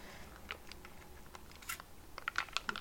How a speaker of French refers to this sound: Une petite gorgée de café glacé. Bref, ok, mon dieu, le bruit.